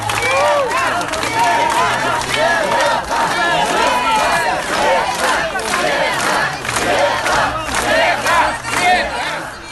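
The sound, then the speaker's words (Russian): A crowd of several hundred supporters chants and cheers continuously in an ovation outside polling station No. 21 at School No. 137 on Kalinovsky Street, many voices shouting together, loud and dense throughout with rising bursts of cheering. “Около участка ее встречали несколько сотен сторонников, которые устроили овацию.”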